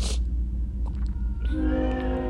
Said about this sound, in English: I feel this train is so loud.